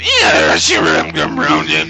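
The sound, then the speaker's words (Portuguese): A voice imitates a dial-up modem with loud warbling and screeching tones that slide up and down in pitch for about two seconds. “Que ó, modem, tá ligado?”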